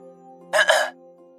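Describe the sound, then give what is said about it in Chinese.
A quick, raspy throat clearing, two short rough bursts run together and lasting under half a second, over a low steady hum, with no talking. “瓦尔清了清嗓子说道”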